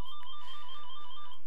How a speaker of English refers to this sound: sorry about the ringing, that was my phone ringing apparently